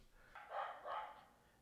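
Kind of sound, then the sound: animal, dogs barking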